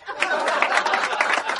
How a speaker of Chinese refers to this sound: 谢谢大家的掌声啊！